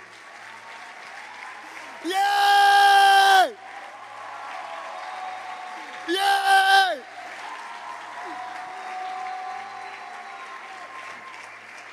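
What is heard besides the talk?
applause and cheering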